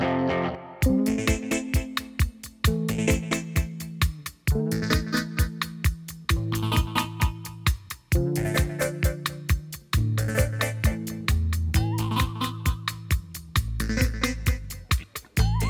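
A pop song plays at full volume, driven by a steady, punchy beat and a firm bass line that shifts pitch every couple of seconds under bright layered instruments, with no one talking over it.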